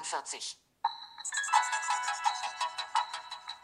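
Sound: mobile phone ringtone preview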